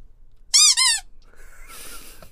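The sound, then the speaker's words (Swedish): Two loud, high-pitched rubber squeaks in quick succession from a squeaky toy shark used to signal spoilers, followed by faint rustling and a softer, thinner squeal trailing off. “Uh, Okej, okay, vi blåser, eller vi piper med spoilerhajen”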